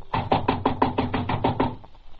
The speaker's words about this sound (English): So I just sat there and waited for the door to take a beating. And it did.